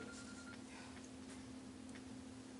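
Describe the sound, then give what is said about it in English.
A faint phone ring with a few soft electronic chirps, sitting over a steady low electrical hum. No one speaks. “I heard a phone ring.”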